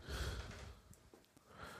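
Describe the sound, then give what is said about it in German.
Heavy, noisy breathing: a long breathy exhale, a brief lull with faint rustles, then another deep breath near the end. No speech. “Wir atmen deshalb alle schwer, weil der Podcast-Kind nochmal zurückgekommen ist.”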